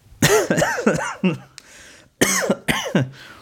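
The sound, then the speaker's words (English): Two loud bouts of harsh coughing, each a quick run of three or four rasping, partly voiced coughs, separated by a short pause with no talking. “as I cough it up.”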